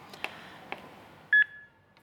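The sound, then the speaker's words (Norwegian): A public-access defibrillator (heart starter, AED) being switched on in Norway, powering on with a few short clicks, then a sharp electronic beep and a fading tone, clear with no talking. “Lyden du hører, er apparatet som er lagd for å redde liv.”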